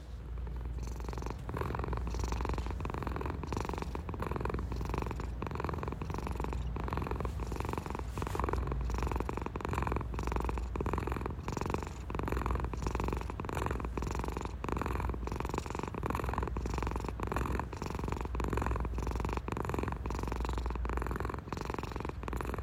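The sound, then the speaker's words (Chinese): A cat purrs loudly and steadily, a low rumbling drone with a fast, even pulse running unbroken through the whole stretch, no voices over it. “但这位嘉宾他现在似乎是变本加厉了，他呼噜声变得更大声了，来让大家听一下。”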